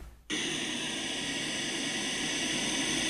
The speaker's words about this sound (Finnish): Tämä on aallokkoa.